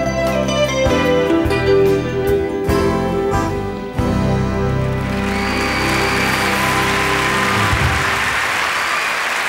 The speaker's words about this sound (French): Ouais, je laisse les applaudissements parce que bah, elle le mérite, quoi. Elle le méritait largement.